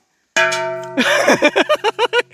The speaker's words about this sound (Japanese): ゴングだ、ゴング。どっちかっていうとゴングです。